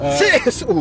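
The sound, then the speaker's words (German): A voice fakes a short, sharp sneeze, with a drawn-in breathy lead-up and a hissing burst, blended into a spoken word, while travelling on the motorway at the Ulm-Elchingen interchange in Germany. It is loud and sounds like a single deliberate joke sneeze. “Gesundheit.”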